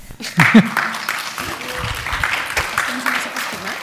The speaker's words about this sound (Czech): Ještě můžeme zatleskat.